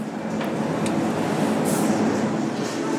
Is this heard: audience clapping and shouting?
no